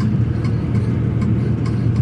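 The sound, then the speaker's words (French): A steady, droning engine rumble fills a very modern bus travelling from Dar es Salaam at 3 p.m., low and constant, with faint rattles and road noise layered on top and no voices. “Il est 15h, je suis dans un bus euh, très moderne, bonne conditionné.”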